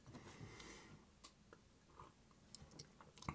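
Quiet sipping of tea, with soft slurps, small mouth clicks and a cup tapping a few times, no one speaking.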